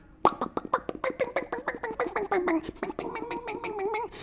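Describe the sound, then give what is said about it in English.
A voice imitates a chicken-picking country music guitar lick, where strings are plucked with a rigid pick at certain intervals so it sounds like a chicken: a fast run of short, clucky, plucked-sounding notes, fairly loud, ending in a brief held, wavering tone. “like in country music, where um, basically they um, they emphasize um, using a pick, a very like um, kind of like a like a very rigid pick, and you pluck the strings with certain intervals in a certain way that sounds like a chicken, basically like.”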